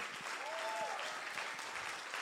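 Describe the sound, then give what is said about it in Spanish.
A church audience applauds, giving the Lord a hand clap, in a steady, dense wash of clapping that holds at an even level throughout, with a brief faint whistle-like tone rising out of it early on. “Den un aplauso fuerte. Come on, give the Lord a hand clap.”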